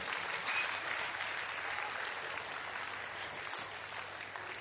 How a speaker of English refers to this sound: I think we can do a better hand clap. Let's appreciate.